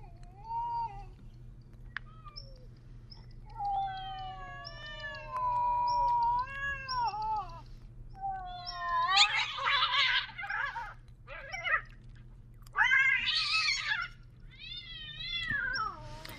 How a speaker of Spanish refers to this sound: Bueno, ¿alguna vez los han despertado gatos peleándose o, gatos en celo, ¿no? O gatos en celo en la noche, así están dormidos en su cama, en su cuarto, y empiezan así, empiezan a escuchar esto.